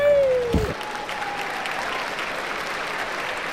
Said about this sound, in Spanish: Con ustedes, un aplauso para el señor.